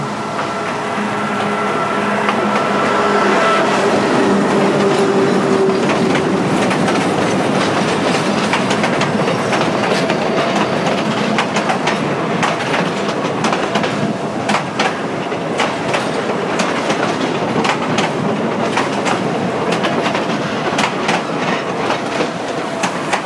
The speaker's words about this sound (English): I think if we there's uh, the fresh sounds of the Peruvian rail system.